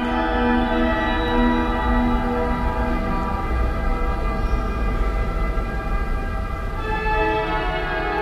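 A chorus of car horns honking together from the Avenue Habib Bourguiba in Tunis, carrying into a cathedral: a dense, dissonant wall of sustained tones that holds steady and shifts in pitch near the end; no one speaks.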